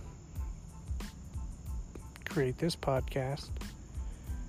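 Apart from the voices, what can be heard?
crickets chirping at night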